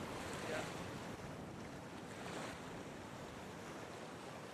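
Steady roar of ocean surf washing onto the beach at Banna, with broad swells of crashing water and gusty wind buffeting the microphone, no voices, fairly loud and continuous.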